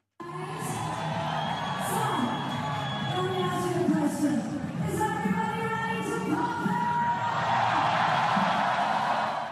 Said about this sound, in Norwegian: Um, så kan du bare høre litt lyd fra da jeg satt bak scenen, og det var artisten før oss som fikk opp stemningen til publikum.